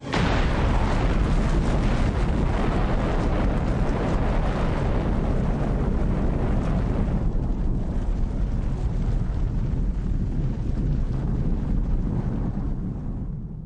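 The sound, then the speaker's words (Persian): The roar of the Fat Man atomic bomb exploding over Nagasaki: a deep, loud, continuous rumble with crackling hiss that holds steady for over ten seconds, thinning in the highs midway, then fades at the end. No voices. “لیتل بوی اسم اون بمبی بود که توی هیروشیما منفجر شد و فتمن بمب دومی بود که ناکازاکی رو داغون کرد”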